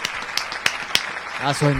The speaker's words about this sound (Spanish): falta el aplauso a ese hombre ahí, falta el aplauso ese hombre ahí.